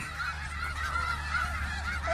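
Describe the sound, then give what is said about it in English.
A flock of geese honks continuously, several overlapping nasal calls repeating in quick succession at moderate loudness over a steady low rumble, with no one talking. “Look at all those chickens.”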